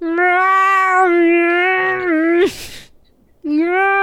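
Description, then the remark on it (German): A person yowls like a cat in a long, sustained, wavering wail, breaks off with a breathy noise, then starts another drawn-out, loud yowl. “Vielleicht kann ich so jaulen, so.”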